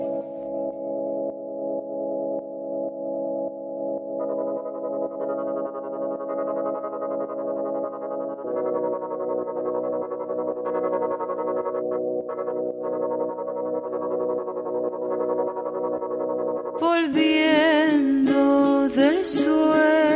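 A solo song opens with steady, sustained droning tones that shift pitch partway through, then swells near the end into a louder, richer passage with wavering, effect-laden sound. No talking.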